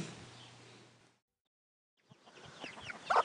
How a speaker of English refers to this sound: Well, we're out in the chickens and we've got tale of joy and a tale of disaster. The tale of joy is that we've had five new chicks amazing. And our hens are producing lots of eggs, which is also really good.